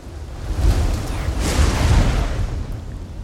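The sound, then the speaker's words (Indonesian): Loud, deep thunder rumbles continuously for a few seconds, with a sharper crackling swell partway through before it rolls on at a steady low roar. “Petir masih menggelegar.”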